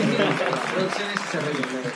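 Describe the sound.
Audience applause: a steady, dense wash of clapping lasting about two seconds, with voices talking and calling out over it.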